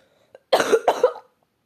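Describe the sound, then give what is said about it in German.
Two quick, harsh coughs in close succession, loud, with a tiny click just before and silence around them. “Sorry, hoffentlich stehe ich nicht mit Husten.”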